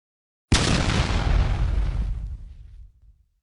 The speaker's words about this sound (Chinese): 只听到一声大响，水中如同扔下了一个炸弹似的，猛地炸开了。